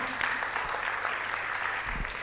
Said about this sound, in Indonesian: Kasih tepuk tangan yang meriah buat Tuhan. Amin.